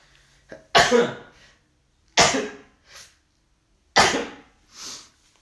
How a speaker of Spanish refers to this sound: estaba estornudando aquí.